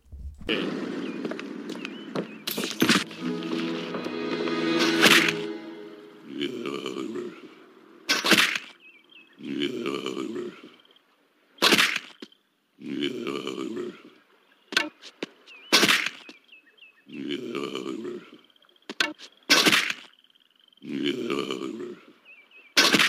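A rake smacks someone in the face again and again, each sharp whack followed by a pained grunt, repeating about seven times in a steady, close, loud rhythm.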